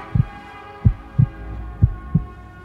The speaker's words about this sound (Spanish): En cuanto pensé en eso, el sudor comenzó a escurrirse por mi rostro, mis piernas y mis brazos temblaban y mi corazón golpeaba fuerte y con frecuencia mi pecho.